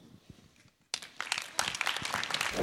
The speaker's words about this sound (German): Und äh, ich möchte euch bitten, wenn sie hier auf die Bühne kommt, dass ihr einen warmen Applaus gebt, der sich gewaschen hat.